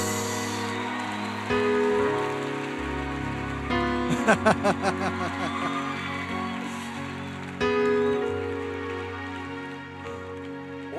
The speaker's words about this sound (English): Come on, give her a big hand clap of praise.